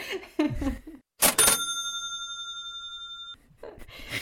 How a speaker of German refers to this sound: ich wünschte, mein, mein Soundboard würde funktionieren. Ich würde jetzt diesen Kaching-Sound einspielen.